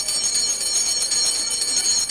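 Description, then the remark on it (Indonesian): A continuous electric school bell rings loudly and steadily, a bright metallic clang sustained for the whole stretch with fast repeating strikes and no voices. “udah bel tuh gua ke kelas dulu ya”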